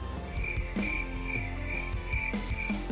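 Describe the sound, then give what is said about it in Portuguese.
Crickets chirp steadily in a high, repeating trill, with bursts pulsing every half second or so over a soft low hum, like a quiet night ambience. “momento grilo. Pessoal, não, momento cri-cri.”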